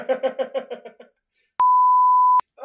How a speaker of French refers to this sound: mais non, putain, j'allais dire on dira pas son nom. Hein ça veut dire On dira pas son nom, bah, on peut, on peut biper si tu veux.